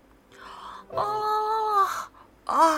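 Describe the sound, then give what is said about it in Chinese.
A person reading a storybook voices the big yawn of a little brown bear named Douglas, coming up from a deep dark hole on a spring morning: a soft breathy start, then a long, loud, drawn-out moaning 'aah' that sags in pitch, ending with a short rising vocal burst. “一个春日的早晨，从一个深深的黑洞下面传来了一声大大的哈欠。”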